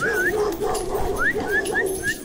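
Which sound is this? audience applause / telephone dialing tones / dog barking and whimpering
dog barking and whimpering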